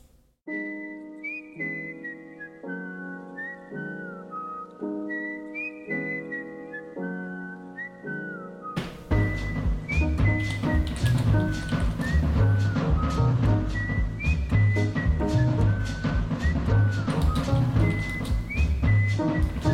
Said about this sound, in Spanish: Eh, hoy vamos a escuchar una canción eh, hecha con un ruido, hecha con un silbido